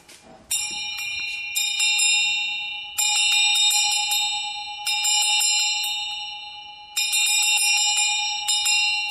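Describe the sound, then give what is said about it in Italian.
A handbell, the house bell of a shared home that is rung every morning to wake everyone, rings in repeated bursts of rapid strikes, each cluster ringing out bright and metallic before decaying, with brief pauses between rounds. No one speaks. “Questa è la campana. E noi la suoniamo.”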